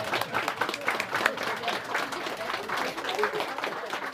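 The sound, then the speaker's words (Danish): Sustained audience applause at a culture prize event of Fredensborg Municipality, Denmark, on a summer day, thanking local cultural volunteers: a dense patter of many hands clapping at once, steady and fairly loud for about four seconds with no break. “Skal vi ikke lige klappe det?”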